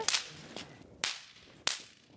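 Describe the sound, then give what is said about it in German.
Three sharp, bright cracks of snap-pop firecrackers thrown onto the floor, each making a small spark, unevenly spaced, with a fainter pop between the first two. Each bang is brief and loud, with no voices. “Ich nehme die und schmeiß die auf den Boden. Und dann knallt sie, macht ein kleiner Funken.”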